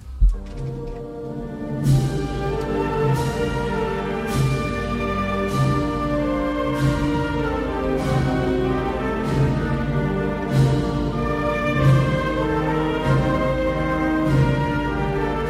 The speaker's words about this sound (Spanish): Esta es la marcha Virgen de los Dolores, de Perfecto Artola Prats.